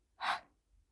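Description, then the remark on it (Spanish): A single forceful breath pushed out sharply, like blowing out candles, exhaled with the tongue on the palate during a breathing exercise, a quick airy burst that fades within a fraction of a second. Fairly loud, no talking. “Inhala, lengua en el paladar y exhala como apagando velas.”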